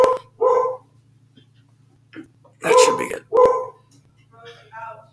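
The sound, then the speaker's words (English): A dog barks in a few short, loud bursts, clustered near the middle, while people talk quietly around them over a steady low hum. “You know, we could just edit out the dog barking.”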